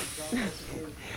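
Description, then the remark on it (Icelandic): Air hisses steadily out of a car tire as it is deflated before being taken off its rim, a continuous rush lasting about a second, with a brief voice sounding faintly underneath. “og dekkin eru tekin undan para hérna í, í, í vélarnar þar sem loftið er tekja, tekið af hjálparnum og svo er dekkin tekið af felgunni”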